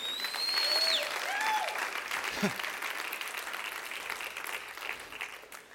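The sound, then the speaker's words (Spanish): An audience gives applause to the Lord, breaking into sustained, dense clapping that holds steady for about six seconds, with a few thin whistle-like tones and scattered voices rising above it near the start. “Y puedes dar un aplauso al Señor también si lo crees.”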